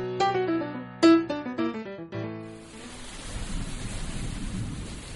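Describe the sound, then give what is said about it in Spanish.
A few ringing musical notes fade into a steady wash of heavy rain with a low, rolling rumble of thunder underneath, continuous, with no voices. “De los días de lluvia no me gusta hablar.”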